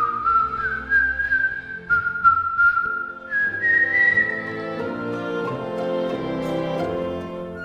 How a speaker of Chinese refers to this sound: 费琴老人精神饱满地边吹口哨边煮咖啡。当楼下有一点声音传上来的时候，他便停下口哨静听。一会儿又开始吹起来。